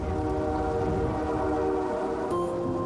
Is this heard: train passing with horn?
yes